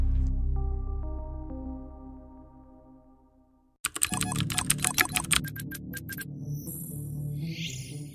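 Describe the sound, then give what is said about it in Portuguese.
A low droning hum fades out, then rapid, frantic clacking on a laptop keyboard bursts in abruptly and keeps going, fairly loud, with no one speaking. “Não, e o cara digitando cara, horrores, né?”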